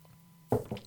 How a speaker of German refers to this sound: So, dann nehme ich mal einen Schluck Wasser.